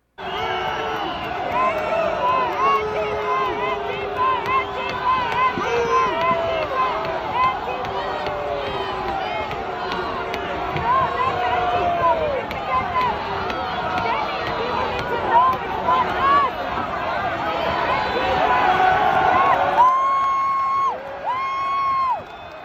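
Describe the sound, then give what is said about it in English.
A large crowd cheers and shouts continuously as a man is pulled away from a window, with overlapping voices and whoops forming a loud, dense roar that swells near the end, where a few sharp, sustained yells stand out. “That's a whole lot of people cheering when the guy is pulled away from the window, trying to stop him from being violent and everything else.”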